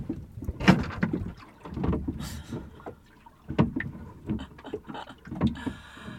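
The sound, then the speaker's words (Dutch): Sailboat rigging clatters and knocks in gusty, strengthening wind while the boat lies at anchor in Dubai, with irregular sharp taps and rattles over a steady rushing breeze, moderately loud, no talking. “Toen ging het wat minder klapperen, maar nu is het toch allemaal weer dit lawaai aan het maken.”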